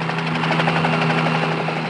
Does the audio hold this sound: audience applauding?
no